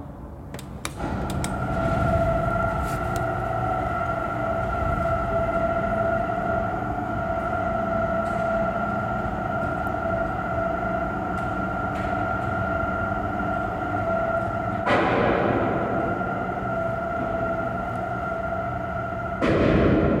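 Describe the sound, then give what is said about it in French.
A large observatory dome, 24 metres in diameter and the largest movable dome in Europe, built by Gustave Eiffel, grinds open with a steady, droning motor hum and rumble, punctuated by a few heavy metallic clunks near the start, middle and end. No one speaks. “on a une coupole, 24 mètres de diamètre, plus grande coupole mobile d'Europe, réalisé par Gustave Eiffel. Ouverture dans 5, 4, 3, 2, 1.”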